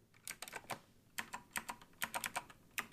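Typing on a retro-looking 1990s mechanical keyboard with white clicky Alps switches: bursts of sharp, bright keystrokes in uneven rhythm, fairly quiet, with short pauses between flurries and no voices.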